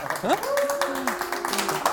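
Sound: audience applause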